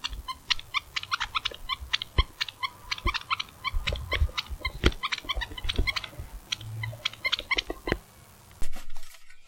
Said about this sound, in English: It's the pink snail that squeaks that happens to be on Emma's backpack.